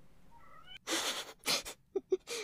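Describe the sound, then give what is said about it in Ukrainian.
A cat demanding water lets out a short series of insistent meows, two long drawn-out cries followed by two quick chirps and a final wail, fairly loud with no talking. “Вимагаємо води. Що ти будеш кричати зараз?”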